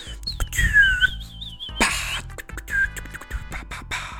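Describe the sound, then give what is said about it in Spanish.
A person whistles a short, wavering, warbling tune for over a second, followed by bursts of crackling, scratchy noise with no talking. “Ya te voy a volver a chiflar”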